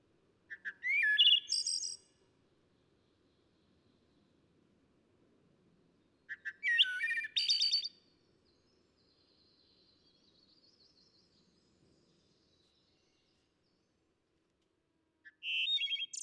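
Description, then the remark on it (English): A bird sings three bright, rapid bursts of trilling song separated by pauses, with a faint thin whistle drifting in between, clear with no voices; a bird recording from the Macaulay Library at the Cornell Lab of Ornithology. “with bird vocalizations courtesy of the Macaulay Library at the Cornell Lab of Ornithology.”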